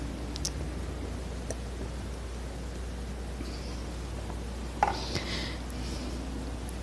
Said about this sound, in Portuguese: Deixa eu tomar um golinho de água.